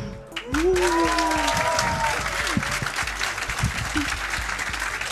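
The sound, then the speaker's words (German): A live audience at the 32nd Chaos Communication Congress claps and applauds steadily at the start of a quiz show season finale, a dense, sustained wash of hand claps, with a few faint voices and whoops rising briefly through it. “Wie die anwesenden äh, Livestream-Publikumshörer hören können, sind wir tatsächlich heute nicht allein.”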